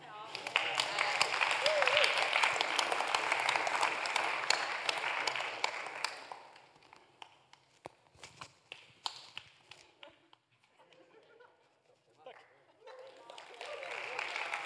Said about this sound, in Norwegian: Det kan være at han er der, men kan jeg klappe for ham?